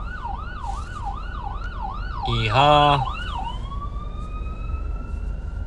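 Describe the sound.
An ambulance siren wails in quick rising-and-falling cycles over a low city traffic rumble, then settles into a steadier tone. Midway, a person briefly shouts over it.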